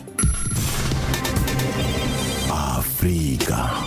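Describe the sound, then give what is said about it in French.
A telephone rings loudly and steadily before the Africa Radio answering machine picks up, a bright, bell-like trill with layered tones and no pauses, heard without any talking over it. “Avant de vous donner la parole, on écoute vos messages laissés sur le répondeur d'Africa Radio.”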